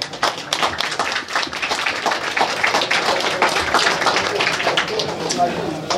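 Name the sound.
audience applause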